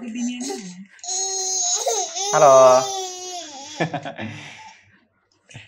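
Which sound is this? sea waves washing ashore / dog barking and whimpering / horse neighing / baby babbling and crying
baby babbling and crying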